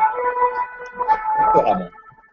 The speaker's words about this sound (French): Ah, on entend, on entend. Je ne sais pas si c'est une ambulance ou si c'est la police.